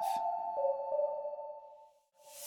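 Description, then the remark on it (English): A transit turnstile card reader gives a clear electronic ping as a man bumps his butt against the turnstile, one steady tone ringing for about two seconds before cutting off, with a few faint clicks underneath and no talking. “he he just bumps his butt up against the turnstile until it pings.”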